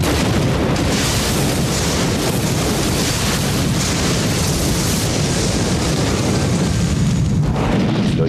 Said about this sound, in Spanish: se escuchó una, como una bomba. Como una bomba.